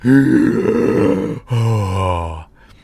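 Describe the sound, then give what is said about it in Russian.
A loud voiced exhale of relief as a person steps outside after holding their breath, a drawn-out groaning breath out in two long pushes, with no talking. “Ну, меня отпускала я вот эту вот полную грудь, знаете, когда...”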